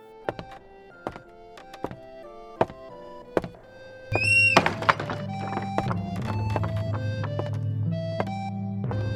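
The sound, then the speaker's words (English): A series of dull wooden thunks and knocks, then a guard heaves open the heavy door to a king's feasting hall with a creaking groan, letting in the louder, busier ambience of the hall that continues to the end. “Fine, but this had better be good, said the guard and he opened the door to the king's feasting hall.”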